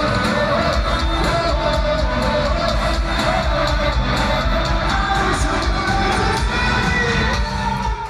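A huge rock concert crowd at the Coliseum in Edmonton, Alberta, roars and cheers without pause, a dense wall of shouting and whooping voices that stays loud throughout, with high yells rising above the din.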